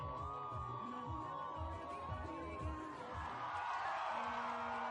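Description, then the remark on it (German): A large crowd in Naivasha cheers and shouts continuously for a presidential candidate whose helicopter is arriving, a dense wall of voices with a sustained high whistle-like tone and steady low rhythmic thumping underneath, swelling slightly louder toward the end. “Die Menschen jubeln, weil sie ihm glauben wollen, auch wenn er ihnen das Blaue vom Himmel verspricht.”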